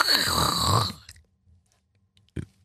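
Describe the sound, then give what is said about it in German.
A voice makes a loud, rough, breathy rasp for about a second, imitating blowing wind in a way that sounds like heavy snoring, followed by near silence and a brief soft knock. “Das hat sich angehört ein bisschen wie derbes Schnarchen.”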